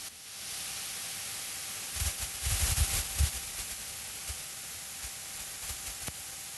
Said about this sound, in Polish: Szumi. Hm, szum. I to taki nie szum wiatru na górszczycie, tylko to jest to jest no, no szum w takim, powiedziałbym, fizycznym, matematycznym sensie.